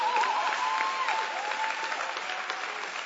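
A crowd breaks into steady applause, many hands clapping in a dense, continuous patter that holds at an even level for the whole stretch, with a faint whistle-like tone drifting through at the start.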